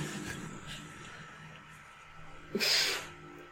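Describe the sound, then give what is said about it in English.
A single loud, wet dinosaur sneeze in a film, sneezing on the character Lex, bursts out near the end, a brief breathy blast after a stretch of low rumbling background noise. “she gets sneezed on.”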